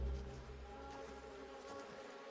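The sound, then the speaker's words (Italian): Flies buzzing in a steady, continuous drone with a faint whining hum, holding at an even level throughout without pauses or voices. “Ci sono delle mosche.”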